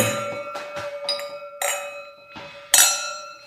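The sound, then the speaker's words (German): Several bright glass clinks ring out in quick succession, each leaving a sustained, shimmering tone, like glasses touched together in a toast; fairly loud, with no talking. “Mit Blick auf die Uhr sage ich nur Prost.”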